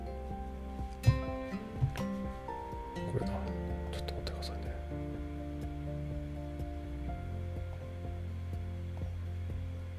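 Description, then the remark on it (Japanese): A personal computer gives off an odd, steady electronic hum with layered whining tones and a few sharp clicks early on, droning continuously beneath a person speaking briefly. “ちょっと待ってね今なんかね変な音がするからめんなさいねちょっとね多分パソコンが変な音しちゃってるちょっと待ってねちょっと今消しちゃうんで”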